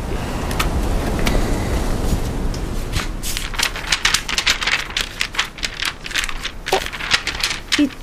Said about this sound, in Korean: 음, 좋다. 파도 소리, 바람 소리.